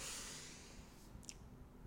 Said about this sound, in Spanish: Bueno, terminamos con una respiración profunda, inhalando